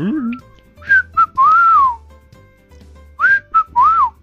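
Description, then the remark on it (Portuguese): A person whistles an imitation of a great kiskadee's call, a clear three-note phrase with a long swooping final note, repeated twice with a short pause between, fairly loud. “É, o Ben TV fala o quê?”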